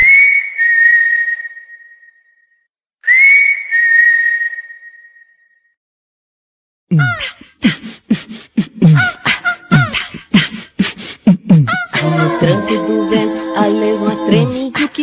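Two long, high whistle-like tones ring out and fade. Then a lively song begins, with voices over busy accompaniment, loud and close.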